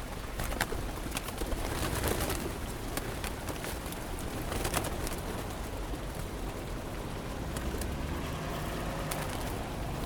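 Pigeons coo softly amid a busy outdoor ambience in Rome, with steady low background rumble and scattered brief clicks and flutters, the birds partly masked by the surrounding noise.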